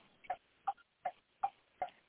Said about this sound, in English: So I hear a clock in the background. Are, are you on a schedule? I'm on my. Uh, that's my car blinker. I'm in the car.